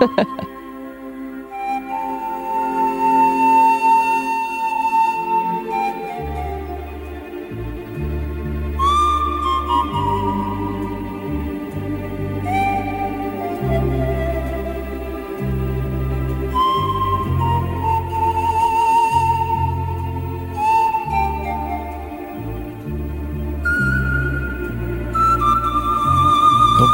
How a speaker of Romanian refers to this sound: aici avem o piesă pentru cei care sunt cu ceaiul. Sau cu sticlele... Adică pentru mine. Exact. Cu sticlele de bere.